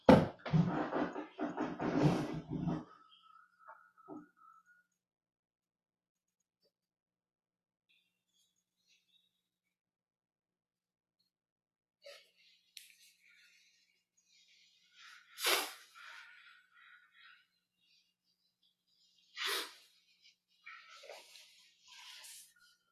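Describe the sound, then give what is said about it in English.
A loud nose blow bursts out at the start, followed after a quiet pause by a few shorter, softer honks and sniffles spaced several seconds apart. No one speaks. “Excuse me, I have to blow my nose.”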